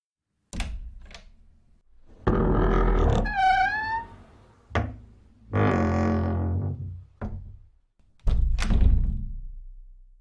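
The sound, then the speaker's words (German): The heavy door of a consulting room is pushed open: sharp clicks of the latch, a long grinding scrape with a high creaking squeal from the hinges, then dull thuds as it swings and settles. Fairly loud. “Dann schob er die schwere Tür des Sprechzimmers auf.”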